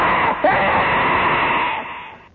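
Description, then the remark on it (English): A person lets out a loud, strained screaming cry, imitating the shriek of a creature that was coming at them. It's harsh, with a brief catch near the start, then a sustained wail that fades out. “This thing is screaming and yelling.”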